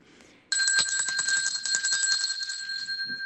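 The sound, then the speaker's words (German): A church bell starts abruptly and rings continuously, its bright, high tone sustained while rapid strikes keep it clanging. It sounds fairly loud, with no voices. It rings at the opening of holy Mass to signal that the service is starting. “Ja, die heilige Messe beginnt mit der Eröffnung und meistens hören wir zu Beginn auch eine Glocke, damit alle wissen, jetzt geht's los.”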